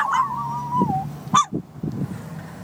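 A dog gives a short, wavering howl lasting about a second and trailing downward, followed by a single sharp yelp, with low background rumble and no talking.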